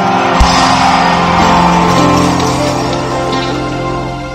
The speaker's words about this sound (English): Come on, scream like a happy person.